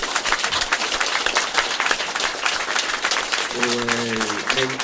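An audience applauds an author for her book, a dense patter of many hands clapping at an even loudness, and a voice starts speaking over the clapping near the end.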